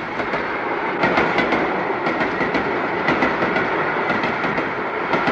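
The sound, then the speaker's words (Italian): A train's wagons roll steadily past on the rails, a loud, continuous rumble with repeated rhythmic clacks as the wheels cross rail joints, without any talking. “Eh insomma, il treno è sempre il treno, eh.”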